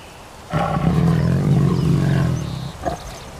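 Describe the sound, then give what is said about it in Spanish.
A tiger lets out a single deep, rumbling roar lasting about two seconds, loud, trailing off into a short grunt near the end. No talking. “Con su permiso, con su permiso, compañeros, debo cumplir con las reglas dadas por la madre naturaleza. Es hora de que vuelva a mi cuerpo de tigre.”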